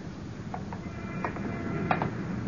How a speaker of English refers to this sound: There. There. Don't you hear the footsteps? Just ours. No, no. I mean the ones behind mine. Just a split second after every step I take. Behind me. Following.